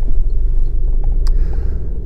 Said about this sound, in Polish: Ja e, dzisiaj e, jestem w Warszawie i ruszam właśnie spod domu samochodem, jadę sobie do biura powoli.